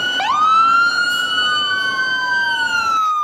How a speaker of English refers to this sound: a call comes in to the fire department at Songshan Air Force Base. Within 90 seconds, the officers have donned full uniform, complete with air tanks, and jumped in the trucks to get to the fire.